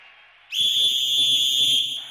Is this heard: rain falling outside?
no